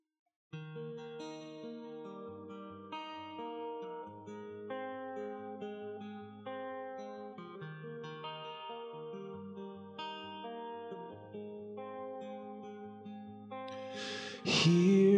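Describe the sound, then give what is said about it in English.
A recorded worship song intro plays: layered, sustained instrumental chords shift steadily at an even loudness with no singing, then swell into a sudden louder, brighter burst in the final second. “That's what this song is all about. So let's listen, and if you're comfortable, sing along”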